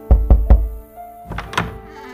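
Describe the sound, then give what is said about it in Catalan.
Three firm, evenly spaced knocks on a wooden door, Mozart's door in a dramatized story, loud, followed by a few softer, muffled shuffling sounds. “Mozart començava a estar força malalt i seguia necessitant diners i un dia van trucar a la porta.”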